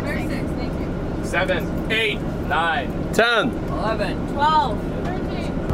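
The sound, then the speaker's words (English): A steady low engine rumble fills the inside of a moving bus on a trip to Springfield, Illinois, on a very hot day, continuous throughout, with several people chattering and calling out over it. “you know, we've been running around all week to a ton of different rehearsals and practices, but it's nice to just sit on a bus, go on a trip, talk to some people that maybe you haven't talked to all week.”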